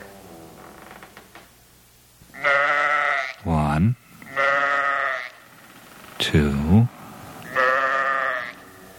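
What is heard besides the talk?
sheep bleating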